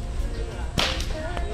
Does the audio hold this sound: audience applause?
no